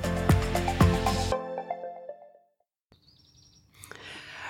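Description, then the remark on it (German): A ringing musical chord fades to silence, then faint, high bird chirps emerge against soft outdoor ambience at a campsite in Innertkirchen in bright sunshine, brief, with no voices. “Wir sitzen hier schön auf dem Zeltplatz äh, bei strahlendem Sonnenschein, Vogelgezwitscher und äh, aber wir sitzen im Schatten.”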